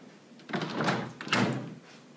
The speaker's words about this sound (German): Tür auf.